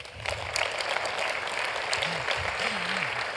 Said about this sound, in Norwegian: Nydelig. Tusen takk. Gi henne en applaus, da.